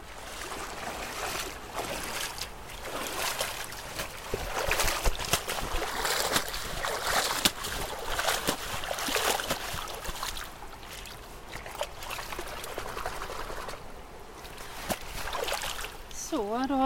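Continuous sloshing and splashing of water as someone wades into the middle of a stream, at most knee-deep, and sweeps a long-handled net to take a bottom-fauna sample, with irregular bursts of churning water and a brief high call right at the end.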